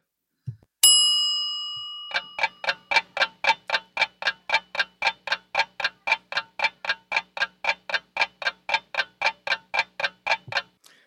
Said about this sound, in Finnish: Kun sekuntikello lopettaa tikittämisen, kerro numerosi ääneen.